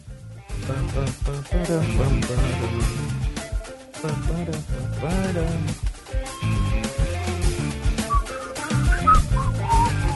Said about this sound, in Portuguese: Então já dou uma assobiadinha aqui e tal.